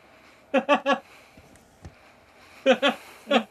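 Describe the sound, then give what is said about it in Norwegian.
Heavy, strained breathing of a person biting their own arm: two clusters of three sharp, forceful puffs, separated by a short quiet pause, with no talking. “Den pustinga der.”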